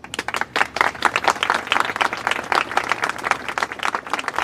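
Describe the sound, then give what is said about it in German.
Steady applause from an audience, many hands clapping in a dense, continuous patter that stays fairly loud throughout, with no voices rising above it. “Vielen, vielen lieben Dank und oh ja, berechtigter Applaus.”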